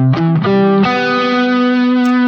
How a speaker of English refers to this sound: We can have a minor chord with a major seventh on top. It happens. And it does sound a little unusual.